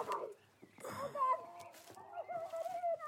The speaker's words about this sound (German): Was ist das? Hühner. Irgendetwas stimmt nicht.